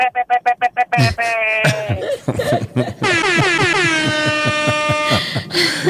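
A car horn in traffic: a rapid string of about seven short, loud toots, followed by longer blaring blasts, ending in a sustained honk that bends slightly in pitch.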